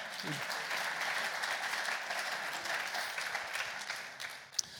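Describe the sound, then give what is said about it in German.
Steady audience applause fills the whole stretch, a dense wash of many hands clapping at an even level, with a brief murmur of voices at the start and a sharp clap near the end. “Ein Applaus.”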